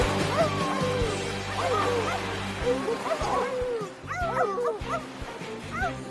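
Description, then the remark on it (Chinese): A pack of sled dogs barks and yips excitedly, mixed with high, rising whimpers and whines, a busy overlapping chorus that keeps going for several seconds with no talking. “安德生，叫小狗们跑啊！”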